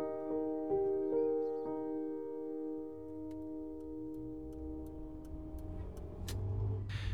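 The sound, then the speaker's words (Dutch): A car drives steadily along an ordinary, quiet street in a small village, its engine humming with a sustained tonal drone, low road rumble underneath and a few faint ticking clicks toward the end. “Ik rijd in een klein dorp door eigenlijk een heel normale straat.”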